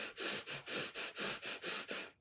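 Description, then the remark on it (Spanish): A person breathes sharply and intensely to demonstrate breathing when angry, about eight quick, forceful huffs in a steady rapid rhythm, loud, with no talking. “de pronto cuando estoy con rabia, la respiración es...”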